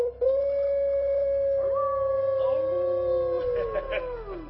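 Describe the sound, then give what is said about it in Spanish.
Two people imitate a wolf howl with long, sustained voices that rise and slide in pitch, overlapping each other loudly for several seconds before tapering off. “ha sido un placer aullar contigo”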